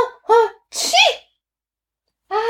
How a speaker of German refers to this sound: Hatschi muss ich machen, weil mir der Pfefferminz in der Nase kitzelt. Hatschi! Und ich niese in die Armbeuge. Das kennt ihr ja schon alle immer in die Armbeuge niesen. So wie ich das jetzt auch mache.